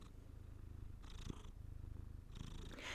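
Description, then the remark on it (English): A male cat purrs steadily, a low rumbling vibration that swells and eases in a slow breathing rhythm, quiet overall with no voices. “I'm here with my cat Atlas. You can hear him purring.”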